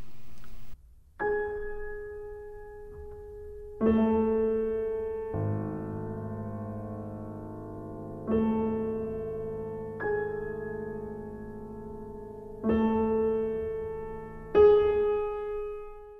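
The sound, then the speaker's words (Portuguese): A solo piano strikes the same note, G-sharp, again and again in high, middle and low registers, each stroke ringing out and overlapping with a slow, spacious pulse. “O pianista deve tocar a mesma nota, que é o sol sustenido, nas alturas aguda, média e grave.”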